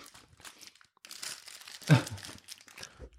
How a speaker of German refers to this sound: Ich mache jetzt hier gerade noch meine Haribo Kamelle Tüte auf. Haribo Karneval.